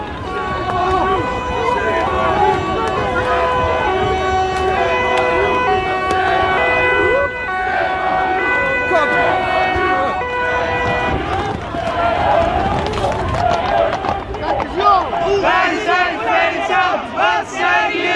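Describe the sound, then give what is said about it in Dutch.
A large crowd scrambles and runs away from charging police amid loud shouting and yelling, with sirens wailing steadily through the chaotic din, continuous throughout. “de politie ging vegen. Die kwamen ineens aangerend. Dus alle mensen begonnen weg te rennen ook.”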